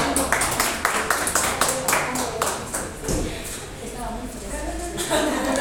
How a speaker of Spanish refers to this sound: Fuerte los aplausos para todos.